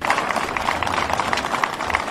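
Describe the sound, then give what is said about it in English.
NYPD police officers clapping steadily as a wounded officer is wheeled out of St. Barnabas Hospital in the Bronx: a dense, fairly loud patter of many hands that holds an even level for about two seconds with no talking over it. “Fellow cops applauded as the wounded officer, shot in the arm, was wheeled out of St. Barnabas Hospital by his partner.”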